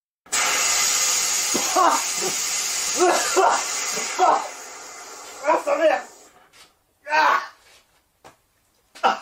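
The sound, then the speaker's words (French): A steady, loud hiss of gas spraying for about six seconds from a connected home security system being tested inside a room as someone enters, with muffled voices talking over it, then the spray cuts off and a few short voiced bursts follow. “Par exemple, alarme et s'il insiste, du gaz.”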